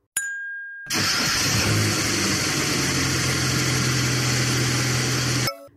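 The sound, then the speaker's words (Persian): A small Pride car engine in Iran starts with a brief crank, then roars into a steady, loud revving drone, holding for several seconds before cutting off abruptly. “این که شنیدید صدای خودرو پراید بود در ایران”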